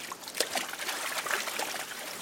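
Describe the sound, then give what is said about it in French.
Paddlers in wetsuits and waterproof gloves push a kayak into water among blocks of ice, giving a steady wash of trickling, splashing water with a few small splashes and knocks over two seconds, no voices. “Ils enfilent leurs combinaisons, leurs gants étanches et ils poussent leur kayak à l'eau.”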